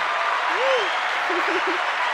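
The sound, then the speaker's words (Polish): Steady, dense applause for the host at the end of a talk show fills the whole clip, a continuous hiss of many hands clapping. A voice briefly rises and chatters faintly beneath it. “O kurczę, no to w takim razie oklaski na koniec dla mnie.”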